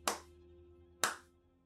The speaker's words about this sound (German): Es ist ein Klatschen, was durch den ganzen Schankraum jetzt dröhnt. Von ziemlich mächtigen Händen die ineinander klatschen.